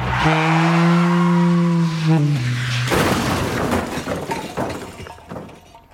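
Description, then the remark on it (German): A sustained horn blares for about two seconds, then a loud crash as a Model T car drives into an elegant car with silvery fenders, followed by glass shattering and debris clattering and settling as it fades out. “so produziert der Räuber Klaui den ersten Verkehrsunfall mit dem neuen Modell T und macht den ersten sogenannten Tin Lissy Crash”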